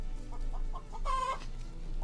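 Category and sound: bird, chickens clucking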